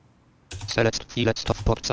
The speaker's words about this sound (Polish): I znowu spacja raz, spacja drugi raz. Mam dwa nagrania, czyli dwa kawałki taśmy.